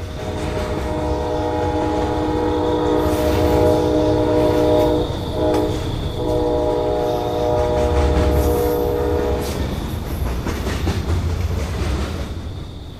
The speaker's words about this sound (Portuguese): Por isso, uma pressão esperançosa apertou seu coração quando os freios chiaram e os vagões pararam no meio da noite.